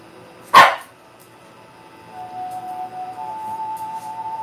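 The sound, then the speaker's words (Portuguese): A dog, Bia, who has been noisily gnawing a bone, gives one loud, sharp bark. A thin, steady whining tone then lingers quietly for a few seconds. No one speaks. “Barulheira, minha filha roendo o osso aqui.”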